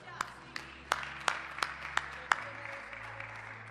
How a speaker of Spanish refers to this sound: ¡Dale el aplauso.